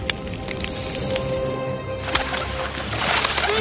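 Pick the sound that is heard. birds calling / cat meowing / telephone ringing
birds calling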